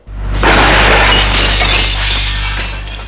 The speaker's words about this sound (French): D'un geste, elle jette la bouteille à terre